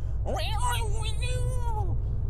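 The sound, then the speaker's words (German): A voice imitates a cat's long, drawn-out yowl, rising sharply then holding a wavering pitch before dropping off, over a steady low rumbling background noise, mimicking a cat whose paw apparently got into a running vacuum cleaner in a hallway. “weil der war am Laufen und ich fängt auf einmal an zu miauen”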